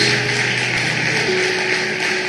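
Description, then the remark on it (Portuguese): A standing church audience applauding God: dense, steady clapping that stays loud for the whole stretch, with a faint sustained hum beneath it and no voices. “Y les voy a pedir que den un aplauso a ese Dios tan amoroso que tenemos.”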